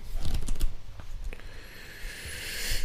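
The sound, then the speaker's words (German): Pages of a homeopathy book are riffled in a quick run of soft, papery flutters and rustles, followed by a faint airy hiss; no one speaks. “Homöopathie verstehen, anwenden. Via Blättern.”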